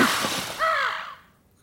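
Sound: bird calls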